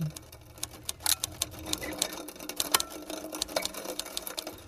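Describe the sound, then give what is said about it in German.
Rapid, irregular mechanical clicking and clacking from a loop of old devices such as typewriters, coffee grinders, slide projectors and cameras, with sharp strikes tumbling over one another and no voices. “Lehnen wir uns also an dem ganzen Wahnsinn mal kurz zurück und hören in Schleife alte Schreibmaschinen, Kaffeemühlen, Diaprojektoren, Fotoapparate.”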